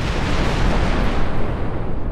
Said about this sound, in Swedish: Som av ett smärre mirakel omkommer bara en människa i infernot från Tunguska-explosionen, ehm, eventuellt två till det är lite svårt att bekräfta.